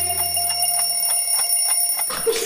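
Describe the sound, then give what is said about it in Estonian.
An alarm clock rings in a fast, steady series of bright metallic bursts, about ten in two seconds, over sustained high tones, then breaks off into a brief jumble of sound. “ja tiksub kell. on hommikune aeg ja hing on hell.”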